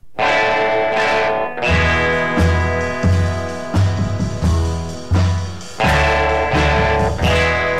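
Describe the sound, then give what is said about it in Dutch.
A heavily distorted electric guitar in a 1958 recording chugs through a loud, gritty riff, with thick low power chords hit in a steady rhythmic pattern and brief pauses between phrases, played alone. “Dus gewoon, heb je gehoord hoe kapot mijn gitaar is?”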